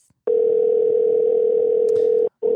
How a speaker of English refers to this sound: Phone's ringing